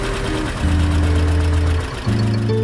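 A tractor engine runs at idle, a loud, steady low rumble whose pitch shifts slightly a couple of times, with no voices over it.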